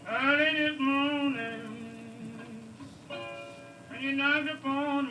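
A blues song recording: a voice sings long, drawn-out notes that slide and waver in pitch, in loud phrases separated by brief dips, with a thin backing underneath.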